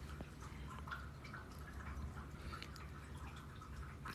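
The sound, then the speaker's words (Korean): Cookie's automatic pet water fountain trickles and drips steadily, a soft continuous burble of water being circulated to keep it clean, heard quietly, with no voices. “저 물소리는 우리 쿠키 물 먹는 거 있잖아요. 그거 순환 깨끗하게 순환되는 소리예요.”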